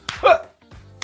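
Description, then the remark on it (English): A voice mimics wrestlers slapping each other, with a sharp, breathy smack followed by a short throaty yelp, then a lower grunt and another quick smack at the end, fairly loud. “And this kind of hit reset on everything because they just started to slap each other.”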